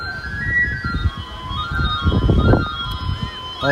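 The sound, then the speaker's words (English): A knife sharpener's (afilador's) pipe whistle plays over a loudspeaker a thin, sustained tune with held high notes and a brief rising run, heard over street noise and people talking. “the afilador, the knife sharpener. Uh, that sound of the kind of pipes you can hear, or I don't know, like tin whistle flute, whatever you want to call it it's something that I'm used to hearing in Madrid uh, when the guys go around on their bikes”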